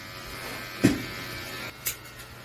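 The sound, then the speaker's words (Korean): A steady electric hair clipper hum runs throughout as a dog is groomed at a dog grooming salon, with a couple of brief clicks or knocks where the blades press or the clipper shifts. “이발기 소리가 가장 많이 들리네요.”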